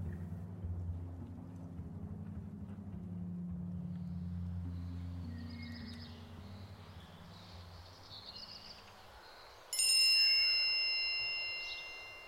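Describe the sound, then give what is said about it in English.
A phone text message notification chime rings out once in the morning, bright and clear, near the end, its tone lingering and fading after a stretch of low, steady background rumble. “I woke up the following morning thanks to a text from Tyler telling me he landed the gig”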